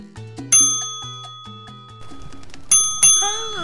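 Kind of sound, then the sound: signal or alarm, reception desk bell ringing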